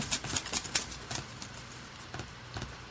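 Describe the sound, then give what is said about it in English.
Paper slips with names on them being shuffled by hand before drawing the last winner of a prize draw: soft, crisp rustles and light flicks in a quick, uneven cluster, then a pause and a few scattered rustles. No one speaks. “And lastly, but not least, shuffle around these names here again.”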